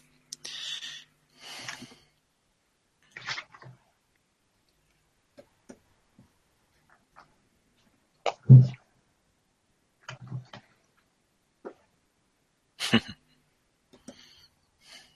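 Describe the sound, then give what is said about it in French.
A cat laps drinking water, making scattered soft, wet clicks and licks with quiet gaps between them, while a person laughs briefly in the background. “Et je rigole c'est mon chat qui est en train de boire de l'eau.”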